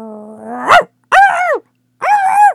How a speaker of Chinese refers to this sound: 说话间，一只跟着巫婆出门来的小狗冲着小伙子吠叫的很厉害。